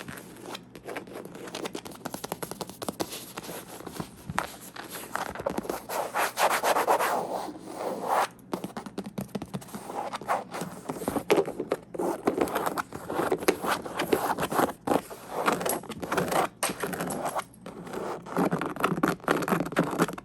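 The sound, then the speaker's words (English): Continuous rubbing and scratching on a gaming chair, a dense, textured friction noise with steady back-and-forth strokes and brief pauses, heard alone without any talking. “I think gaming chairs make such great sounds.”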